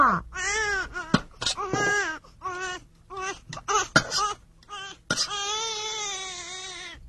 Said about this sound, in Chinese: 小朋友，小宝宝张大着嘴巴哭，妈妈就知道他饿了。